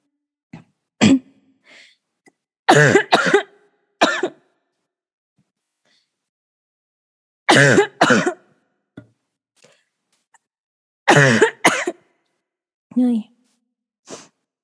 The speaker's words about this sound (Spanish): entonces, ya una disculpa, me dio un superataque ataque de tos, que estaba un poco resfriada.